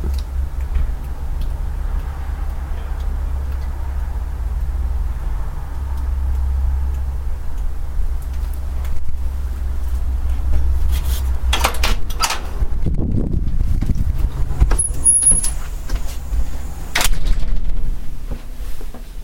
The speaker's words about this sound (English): And I hear him pulling into the driveway now, so I'm going to go back outside.